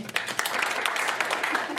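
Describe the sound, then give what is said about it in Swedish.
A stand-up comedy audience applauds in a steady, dense wash of many overlapping hand claps, fairly loud and sustained for the whole moment without any voices on top. “Eh, alltså, jag hörde på Vetenskapsradion i P1, någon som lyssnar på det, applådera igen.”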